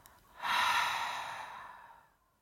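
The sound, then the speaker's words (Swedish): A slow exhale of breath, a soft airy rush that swells quickly and then gradually fades out over about two seconds, with no talking. “Andas ut.”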